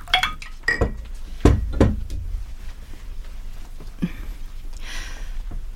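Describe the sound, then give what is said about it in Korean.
Several glass clinks ring out one after another, bright and short, with a couple of heavier knocks like glasses set down, followed by quieter rustling and a soft clatter, as people begin drinking from their liquor glasses. “그들이 술잔을 기울이기 시작하자 나는 녹음 중이던 휴대폰을 조용히 껐다.”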